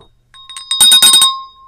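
A small bell is rung during a reading from Colossians 3 in a sermon, in a quick flurry of bright, metallic strikes, growing louder before the clear tone rings on and fades. No one speaks.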